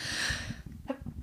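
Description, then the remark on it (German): A single sneeze, a loud, breathy burst of hissing noise lasting about half a second, followed by quieter sniffing and soft breath sounds. “Gesundheit.”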